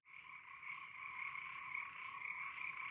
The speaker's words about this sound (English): That night, I was awoken at around 3 a.m. by a symphony of frogs. I went to the window and opened it to get a better listen and decided to record it. A chorus of thousands of frogs oscillated in my ears, mirroring the drone of the instruments earlier